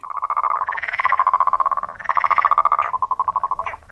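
A chorus of frogs croaks in loud, rapid pulsing trills that overlap and continue without pause, rising slightly in pitch at moments, with no voices present.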